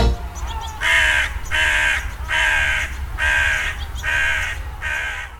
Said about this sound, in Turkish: Kargalar belki de insanoğlunun en iyi bildiği kuş türlerinden. Peki neden?